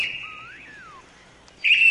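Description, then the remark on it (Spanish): A bird sings alone in bright, sustained whistled notes with a sliding tweet in the middle, briefly fading before a louder, sharper burst of song rings out at the end. “Cantaba lindas canciones.”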